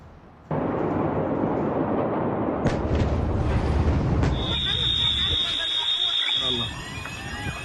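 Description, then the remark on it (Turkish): A huge explosion at a port in Beirut, Lebanon, erupts with a sudden heavy roar and sustained rumbling, sharp cracks within it, then a high alarm-like tone rings out as the blast fades, with voices faintly in the background. “Önce küçük bir patlama, ardından tüm şehri sarsan bir afet ve mantar bulutu.”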